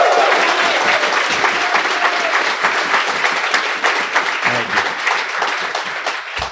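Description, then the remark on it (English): Sustained audience applause, dense steady clapping from a crowd that holds at a loud level for several seconds before tapering slightly at the end. “It's very cool, and all that applause even without prompting.”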